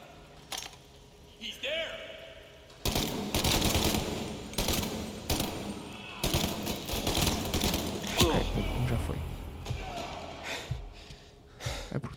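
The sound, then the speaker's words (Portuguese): Loud, rapid bursts of video game gunfire crackle in long automatic volleys broken by brief pauses, with a few gasps and breathy vocal sounds mixed in. “Estava a disparar de onde?”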